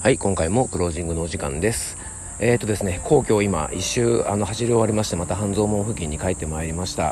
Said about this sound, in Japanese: えー、もうねセミの音聞こえますかね皆さんねもうセミが鳴いてですねもうなんか真夏という感じで